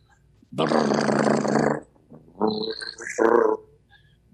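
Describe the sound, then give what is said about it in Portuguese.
A voice imitates a helicopter with the mouth open, as a vocal exercise to strengthen the muscles before the vocal cords: a long, buzzing, fluttering vocal drone, followed by two shorter rumbling bursts, all loud and alone without speech. “Como se fizesse um helicóptero. Fiquei imitando um helicóptero.”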